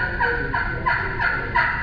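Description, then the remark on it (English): A series of soft, muffled turkey hen yelps, about five evenly spaced calls, made as an imitation of a hen's tree call, the soft, subtle call a hen makes when she wakes up, with no talking. “When a hen wakes up, she's just real soft and subtle. She wants to let those other turkeys know where she's at.”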